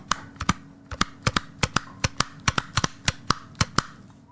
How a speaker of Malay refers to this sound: Dan tak lama kemudian dengar pula macam ada orang main stapler pula kan. Main stapler.